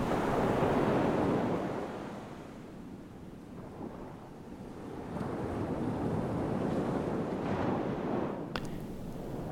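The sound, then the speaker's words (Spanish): Ocean waves roll and break on the shore in a steady, broad rush, swelling loud at the start, easing briefly, then building again, with some wind buffeting and no voices. “el mar.”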